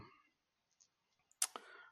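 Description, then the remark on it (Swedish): Pages of a book, the first Generals Handbook, are flipped while searching for a mission called Blood and Glory: a brief, crisp papery flick followed by a softer rustle near the end, after a stretch of faint near-silence with light handling noises. No one speaks. “Eh, här har vi lite, lite ljud på när jag bläddrar i en bok försöker hitta det.”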